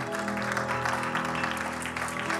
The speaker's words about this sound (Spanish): ¿Cuántos dan gloria a Dios, hermano? Denle un aplauso fuerte a Cristo.